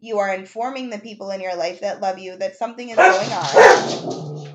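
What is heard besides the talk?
dog barking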